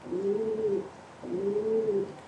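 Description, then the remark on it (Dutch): Two soft, rolling coos from a feral city pigeon, each a low, throaty rise and fall lasting under a second with a short pause between, clear with no talking. “De stadsduif klinkt zo.”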